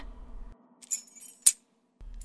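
A few bright metallic clinks and rattles as a full master set of building keys is worked into the lock of an office door, with one sharper clack near the middle over a low background hum.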